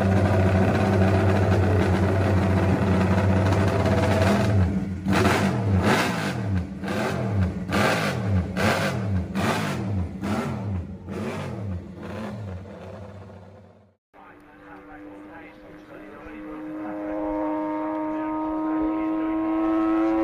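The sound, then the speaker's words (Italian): A loud three-cylinder racing motorcycle engine, from Giacomo Agostini's world-championship bike, roars and revs repeatedly in quick rising bursts, like rapid gear changes, then cuts to a steadier, higher-pitched engine drone. No one speaks. “Questa moto e questo motore si legarono indissolubilmente alla carriera di Ago, che grazie alla tre cilindri portò a casa la bellezza di 13 titoli mondiali, di cui 7 consecutivi in 500 tra 66 e 72 e 6 in 350.”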